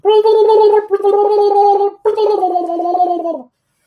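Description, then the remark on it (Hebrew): A voice does a beatbox tongue roll: a loud, buzzing trill in three sustained bursts of about a second each, the last one dipping slightly in pitch, with no talking. “סתם הגשתי לאיזה ספסל, התחלתי לעשות להם ביטבוקס, חרטט להם, ו...”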